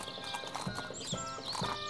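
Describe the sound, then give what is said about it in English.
Horses' hooves clip-clop in a steady, uneven rhythm, several hoofbeats close together at moderate loudness, with a faint bright fiddle-like tone underneath: a bridal party on horseback, led by fiddlers, leaving a farm to go to church. “The wedding day comes, and the impressive bridal party with fiddlers in the front leaves the farm to go to church on horseback.”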